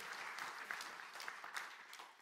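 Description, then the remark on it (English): An audience breaks into steady, dense applause, many hands clapping in a continuous crackling wash that holds for a couple of seconds with no talking over it, celebrating people who came to faith in Jesus Christ in the last few weeks. “Somebody cheer, anything. That's a celebration.”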